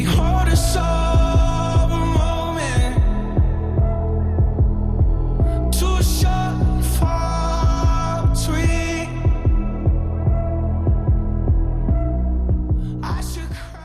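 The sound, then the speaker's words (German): A warm, atmospheric pop song plays loudly throughout, with a steady throbbing low beat under layered sustained tones and a few bright, splashy accents around the middle. No one talks over it. “Es klingt alles sehr sphärisch und warm. Wir können ja einfach mal kurz reinhören.”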